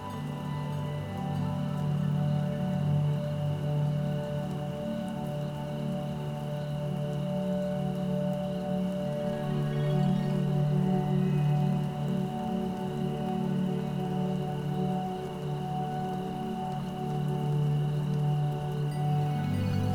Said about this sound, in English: Keep putting your thoughts within a photograph and then watch it rain